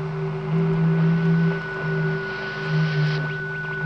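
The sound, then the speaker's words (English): An eerie radio signal received from the planet Venus: steady droning tones layered over hissing static, with faint warbling chirps drifting through. It hums continuously at moderate loudness, with no voices. “There's no reason that Venus shouldn't radiate impulses. I don't mean the static.”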